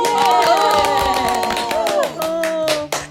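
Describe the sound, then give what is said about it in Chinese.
A burst of lively applause, many hands clapping in quick, uneven rhythm, with cheerful voices and a whoop or two mixed in, fading off at the end. “大家好，欢迎收听新一期的《姐姐说》，鼓掌！”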